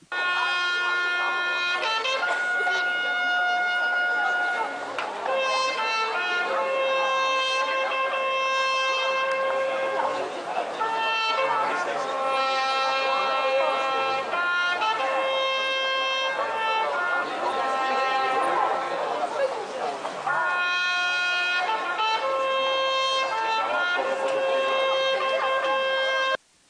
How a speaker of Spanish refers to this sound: Este toque de trompeta, cortado por la flecha que atravesó la garganta del trompetista en tiempos del ataque de los bárbaros, se escucha actualmente en la ciudad de Cracovia